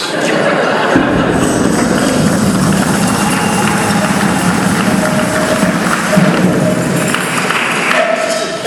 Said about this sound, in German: Dann kommt der Zug, Jubel erschallt, doch dieser macht hier keinen Halt.